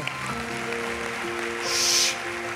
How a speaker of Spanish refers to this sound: Gracias. Denle un aplauso fuerte a mi esposa.